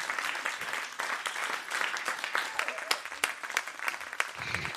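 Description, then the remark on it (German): A live audience at the Roxy Studio claps steadily, a dense wash of many overlapping hand claps with sharp individual slaps poking through, holding at an even, fairly loud level for about five seconds. “Ja gut, also großen Applaus bitte für Merle und für Sophia.”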